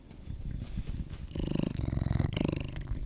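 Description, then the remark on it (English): A cat named Milo purrs, a steady low rumbling throb that swells louder and more resonant partway through, with a rapid pulsing rhythm and no talking over it. “The purring.”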